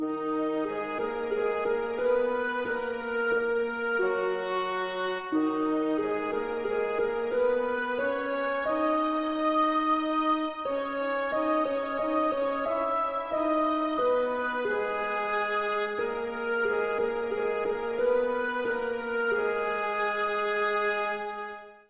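A slow oboe melody doubled by harp, bassoon and faint first violins, blending into one sustained, steady line of held notes that fills the whole stretch without any talking.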